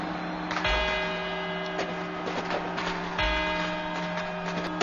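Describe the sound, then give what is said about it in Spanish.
Deep clock bells ring the four quarters before the twelve New Year's Eve midnight strokes, in a slow sequence, each struck note swelling and leaving long sustained harmonic overtones that overlap, with a fresh strike landing about every few seconds. “Estos son los cuatro cuartos.”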